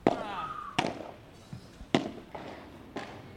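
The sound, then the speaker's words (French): Sharp, hollow pops of yellow padel balls struck by padel rackets, four crisp hits spaced about a second apart with a couple of softer taps between, ringing slightly. “Mais les raquettes sont différentes, le bruit des balles, vous avez entendu, est un peu différent.”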